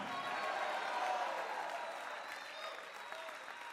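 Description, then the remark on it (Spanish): A church audience erupts in a sustained roar of victory shouting and clapping, a dense, steady wash of crowd noise that eases slightly toward the end without ever dropping away. “Alguien puede dar un grito de victoria en este lugar.”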